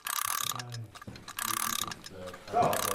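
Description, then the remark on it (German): A watch crystal is pressed onto a watch in a Nivrel watch workshop: loud bursts of grinding, ratchet-like mechanical pressure, ending in a sharper crack as it seats, with no voices. “Im Nivrel-Uhren-Workshop ist jetzt bloß das Glas auf die Uhr gepresst worden.”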